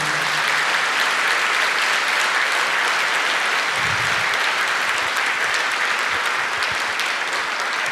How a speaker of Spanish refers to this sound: ¿Cuántos dicen amén? Dele fuerte ese aplauso al Señor.